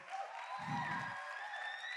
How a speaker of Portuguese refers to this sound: Salva de palmas, gente.